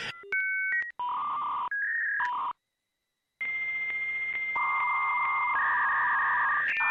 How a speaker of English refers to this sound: Well, we got to put that sound in, right? You got to put the, uh, good old fashioned AOL dial up sound.